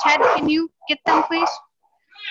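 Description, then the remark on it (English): The speaker's dogs bark in several short, loud bursts with brief pauses between them, while a person speaks over the noise. “oh sorry my dogs are doing their thing”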